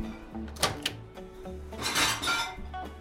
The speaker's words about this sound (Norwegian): Og der var det ferdig, ja. Nå tar du opp mikroen.